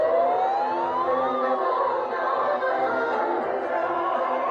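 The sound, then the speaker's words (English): A siren wails on the streets of San Francisco, rising and falling in pitch over a dense, steady wash of city noise, loud and continuous throughout with no talking. “The streets of San Francisco this week have been home to a cacophony. Sirens wailing, helicopters circling, protesters taking to the streets, surrounding the fortified Moscone Center”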